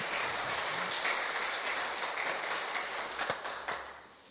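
An audience applauds for the Lord steadily for about four seconds, a dense wash of many hands clapping, with a few sharper individual claps standing out as it starts to taper at the end.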